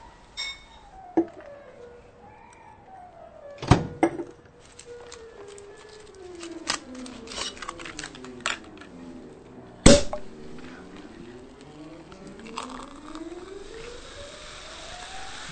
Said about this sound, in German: Wenn du dann mit allem fertig bist, dann müssen wir unbedingt zusammen den Champagner öffnen. Der steht nämlich schon seit ein paar Tagen im Kühlschrank.